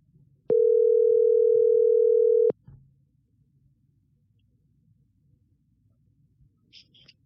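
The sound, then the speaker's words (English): A single steady telephone ring tone sounds loud and clear for about two seconds, then cuts off into a quiet low line hum with a faint, brief high-pitched blip near the end, as a number is dialed on a phone to call someone. “I should have like some sort of music to play in the background as like we wait while I dial a number on my phone.”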